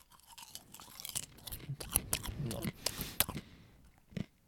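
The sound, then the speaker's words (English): People chewing popcorn with crisp, irregular crunches and wet mouth sounds, loud and steady for several seconds before a brief pause and one last burst of crunching. “It's just gonna be us eating popcorn for so long.”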